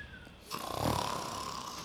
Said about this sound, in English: Wake up, you lazy packet of fish bones! You're snoring your head off!